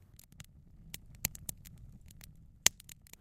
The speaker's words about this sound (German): ich sowas ähnliches wie Pralinenschachtel-Innenleben, also der Kunststoffanteil von Pralinenschachteln, zerschneide. Ich gebe das in einen Stoffbeutel und drücke das ganz langsam, auch wiederum relativ nah am Mikrofon. Dann entsteht dieses Knistern.